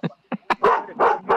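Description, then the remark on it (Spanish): A dog barks six times in quick succession, the first few short and sharp, the later ones louder, longer and more insistent, with no voices over them. “Este, ya calle ese maldito perro,”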